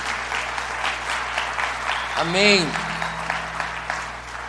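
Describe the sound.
An audience claps steadily throughout, a dense wash of applause given to Jesus for six healings, while a voice briefly calls out a word over it midway.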